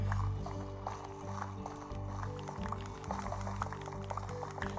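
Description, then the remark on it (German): A video game water bucket is accidentally emptied, a short liquid gush with dripping and splashing, heard over steady background music and scattered clicky footstep-like taps. “So, ich habe gerade aus Versehen mein Wasser verschwendet.”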